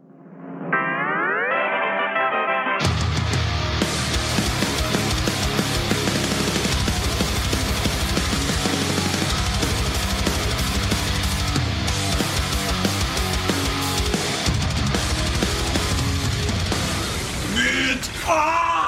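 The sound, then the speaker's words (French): A radio show jingle introducing the 'fourré la chronique' segment: rising synth sweeps for a few seconds, then loud, dense heavy music with a pounding beat and effect-laden shouted vocals, running about fifteen seconds before cutting off. “Euh, Quelle est la touche Jingle.”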